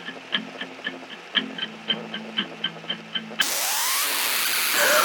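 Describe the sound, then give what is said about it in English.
A boombox chews up a cassette tape: a steady, rhythmic mechanical ticking plays for a few seconds, then abruptly gives way to a loud, harsh burst of hissing, grinding noise. “boombox did not mm. eat my tape”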